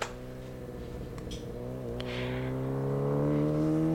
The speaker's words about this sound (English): Motorbike sounds at the start.